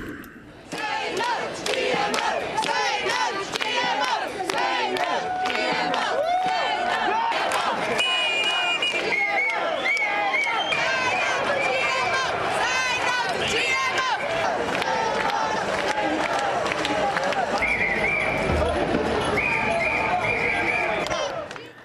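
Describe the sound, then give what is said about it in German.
A loud street protest crowd in London, protesting against Monsanto and genetically modified crops, chants together in rhythmic bursts, many voices shouting in unison over a dense background of crowd noise that stays steady throughout. “Wir hören jetzt mal kurz in die Proteste gestern in London rein.”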